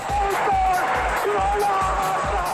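A big stadium crowd roars and cheers in a dense, steady wall of noise, with regular booming drum beats and a sustained horn-like tone running through it.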